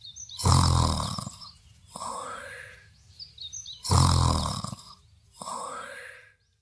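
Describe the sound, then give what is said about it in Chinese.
Two loud, rumbling snores of a big-mouthed monster asleep on a pile of books, each a deep, growly inhale followed by a softer, breathy exhale with a whistling edge, repeating in a slow, even rhythm with no talking. “怪兽爷爷的朋友大嘴巴怪兽曾经专门数过一次，可是数了三天三夜都没有数完，最后累得趴在书堆里打起了呼噜。”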